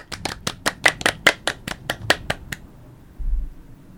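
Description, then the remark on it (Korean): A few people on the book talk show YG와 JYP의 책걸상 clap their hands in a brisk, steady burst of about a dozen sharp claps, fairly loud, then stop. A brief low rumble of thunder follows in the quiet. “우리가 박수 치는 사이에 천둥이 치고 있습니다.”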